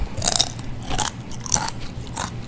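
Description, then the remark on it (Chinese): Crisps being crunched and chewed, about four bursts of crackly crunching spaced roughly half a second apart, fairly loud with no talking. “我其实并没有特别要放这个脆片的声音，我是现场吃的。”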